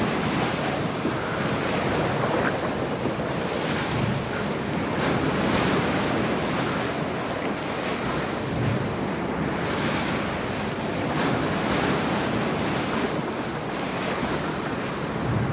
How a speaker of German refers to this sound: Eine leichte Gischt spritzt auf, wenn sich das große weiße Segelschiff im Wasser behäbig auf und niedersenkt.